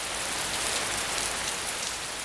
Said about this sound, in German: Es schüttete, kein Fernsehsender würde sich trauen, diesen Wetterbericht zu bringen. Über 300 Grad Celsius war dieser Regen heiß, die Temperatur, bei der Wasser kondensiert, wenn ein Druck von 100 Atmosphären herrscht.